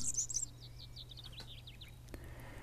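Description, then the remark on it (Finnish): A European serin, a small yellowish songbird, delivers a rapid, high-pitched jingling trill of tinkling notes, followed by a string of quick chirps, over a steady low background hum. “Viikon luontoääni: Keltahemppo”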